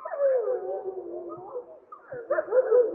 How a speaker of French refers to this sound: C'est une meute avec des louveteaux qu'on peut entendre qui sont beaucoup plus aigus.